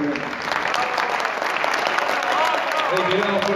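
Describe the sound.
An audience at the 12th International Festival of Peruvian Charango claps steadily and densely, a sustained wash of many hands at even loudness for a few seconds, with faint voices mixed into the applause.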